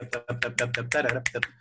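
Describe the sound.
About eight sharp, crisp finger snaps in a quick, even rhythm, imitating cymbals in a vocal imitation of drums, layered over a steady low hummed vocal tone, moderately loud.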